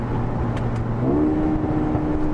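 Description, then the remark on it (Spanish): A sports car engine revs up from inside the cabin, a steady loud drone whose pitch steps upward partway through as it accelerates, with no talking over it. “vamos a poder escuchar el sonido del motor claramente en el interior, en aceleración”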